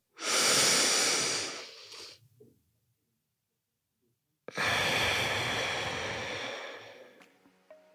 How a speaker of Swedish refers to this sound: Det är liksom in genom näsan, ut genom munnen. Jag har bara hört andas i fyrkant. Det finns också. Ja, men den lilla detaljen att andas i fyrkant med näsan.